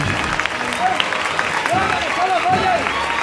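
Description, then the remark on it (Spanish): A crowd breaks into sustained applause as a religious brotherhood's procession float (the misterio) enters El Duque, a dense, steady wash of clapping that fills the whole stretch, with voices calling out over it. “Rompe el aplauso.”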